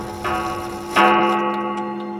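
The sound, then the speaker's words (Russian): A clockwork mechanism chimes twice, the second strike louder, each leaving a steady, ringing metallic tone that hangs on, with faint ticking beneath. No one speaks. “Внезапно синий затрясся, защелкал и начал исчезать кусками под звон часового механизма.”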